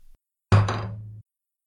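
A die rolled for a Perception check lands on a tabletop with one solid thunk, showing a 20, followed by a brief low resonant ring that fades out in under a second. No voices are heard.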